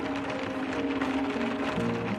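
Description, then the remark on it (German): Steady rain from a passing rain cloud patters and splashes against window glass, a dense continuous hiss with a faint low hum beneath it, no voices present. “Fängt es nochmal an zu regnen?”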